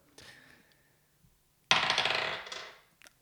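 A die is rolled during a game and lands on a two, clattering across a hard tabletop: a soft first knock followed by a loud rattling tumble that quickly fades, then a faint final click; no voices.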